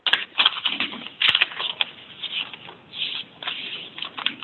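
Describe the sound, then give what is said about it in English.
Papers rustle and crinkle in irregular, scratchy bursts over an unmuted phone line, moderately loud, with a couple of sharp clicks and no voices over the narrow, phone-like sound. “if you, whoever's rustling the papers, please put your phone on mute.”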